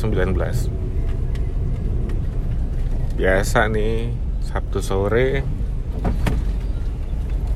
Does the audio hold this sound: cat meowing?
no